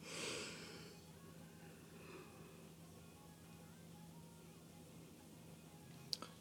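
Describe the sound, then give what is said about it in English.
A single breathy, drawn-out yawn at the very start, fading into a steady low hum with no talking. “Forgive me for my yawning.”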